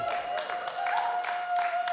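A crowd at a C3 Church Sunday service applauds and cheers, with dense, steady clapping that swells in waves over two seconds. A sustained high tone runs through the noise. No one speaks.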